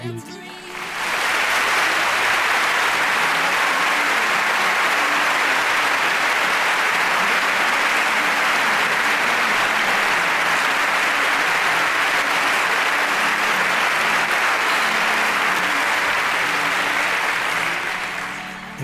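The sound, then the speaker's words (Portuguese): Sustained applause from a show's production crew fills the entire stretch, a dense, steady wash of clapping that holds at a constant loud level for nearly twenty seconds before tapering slightly at the end. “Produção, por favor, palmas. Palmas, palmas.”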